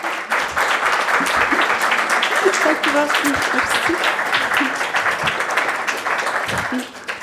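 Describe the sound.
Sustained audience applause, a dense wash of many hands clapping at steady loudness for several seconds, easing off slightly at the very end, with faint murmured voices mixed in.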